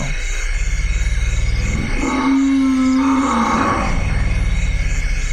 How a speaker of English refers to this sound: These are African forest elephants. And some of the sounds you can barely hear because their frequency is so low. They're literally, literally at the bottom end of human hearing range and even below that. We have little social behavior going on here